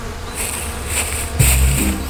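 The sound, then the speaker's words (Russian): A dense swarm of bees hums steadily around the hives at an apiary, a continuous buzz that swells louder and deeper about halfway through, with no voices present. “С пчелами, видимо, познакомиться хотел.”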